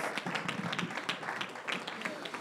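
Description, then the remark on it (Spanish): A church audience applauding the Lord together, a dense, steady patter of many hands clapping at an even loudness throughout, with some voices blending into the noise. “Demos un aplauso al Señor y ya pueden tomar asiento.”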